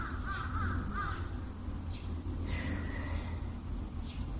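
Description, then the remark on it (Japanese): Several crows caw repeatedly, harsh calls overlapping over a steady low background hum, crows that seem to live on the rooftop of a neighbouring apartment building; no one speaks. “なんだか昨日は一晩中カラスがうるさくてカラスに安眠を妨害されましたなんかどうやら隣のマンションの屋上があのカラスの住みからしくてでもあるのかなすごい賑やかなんですよ”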